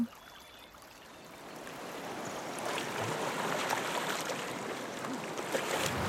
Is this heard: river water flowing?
yes